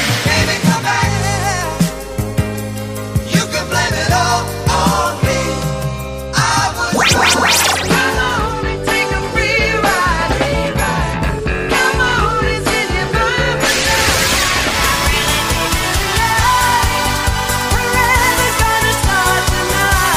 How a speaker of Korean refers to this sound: 두 곡의 음악 이어서 들려드렸습니다.